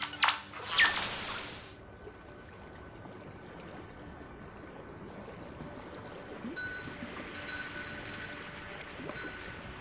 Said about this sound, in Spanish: Como pueden escuchar, el viento y las campanas acompañan eh, mi jornada de pesca. Estoy en un muelle